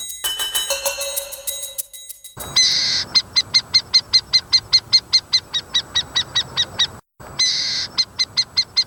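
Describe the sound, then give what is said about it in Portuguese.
A harpy eagle call rings out loud: a piercing high cry breaks into a rapid, steady run of shrill pulsed notes, stops briefly, then starts again, after a moment of other chirping. “Ao fundo, você ouve o canto da ave arpia, também conhecida como gavião real.”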